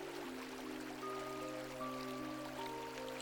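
A steady, continuous babble of a flowing river stream fills the background, gentle and even, with soft sustained musical tones drifting over it and no one talking.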